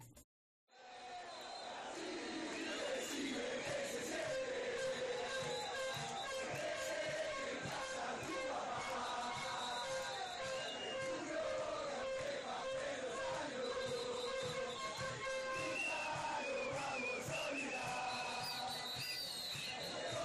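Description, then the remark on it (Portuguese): A huge stadium crowd of Argentine football fans at the World Cup chants the taunt "Brasil, decime qué se siente" at Brazil in unison, loud and sustained for the whole stretch, with rhythmic thumps or claps driving the beat beneath the massed voices. “Um dos gritos mais vistos na Copa e na telinha, Brasil, décime que se sente, onde, nesse grito, é dito que o Brasil é filho da Argentina e o Maradona foi maior que o Pelé, que claramente não foi.”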